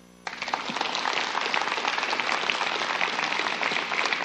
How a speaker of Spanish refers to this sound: Dale un aplauso.